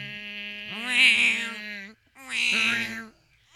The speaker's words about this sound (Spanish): Eh, tú has podido escuchar la sierra en la parte de atrás de mi casa.